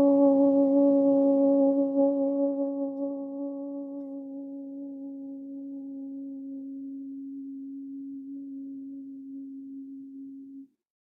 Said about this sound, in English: And we sound the om.